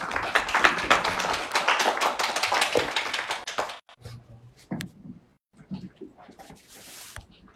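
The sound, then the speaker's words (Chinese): An audience applauds at a Geely Jiaji MPV media launch, welcoming Geely's senior marketing manager Zhu Yunhao to present the car. A dense burst of many hands clapping lasts about four seconds, then dies away into a few scattered claps and faint shuffling sounds. “接下来让我们掌声有请吉利汽车市场部高级经理朱云浩先生为大家详细介绍这款产品。”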